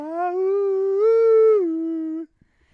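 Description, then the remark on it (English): A single long, drawn-out werewolf-like howl from a song about werewolves, loud, holding steady before rising in pitch midway, then dipping and cutting off abruptly after about two seconds. No talking. “But the problem is he wrote the song about vampires, but it's mostly about werewolves. Well, there's a lot of howling in it”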